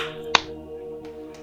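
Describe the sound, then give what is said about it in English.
One person gives a single sharp, bright clap that cracks out once and fades fast, followed by a couple of much fainter soft taps over a steady low hum, with no talking. “I'll, oh, I'll clap.”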